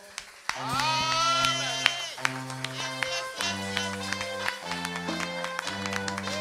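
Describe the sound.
An audience claps and cheers, with sharp, fairly regular handclaps and excited voices over sustained organ-like keyboard chords that shift every second or so, filling the room at moderate loudness.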